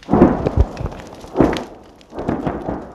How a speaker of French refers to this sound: L'Oburus vient de frapper, la maison brûle en crépitant, la position ukrainienne ratée juste derrière, elle riposte.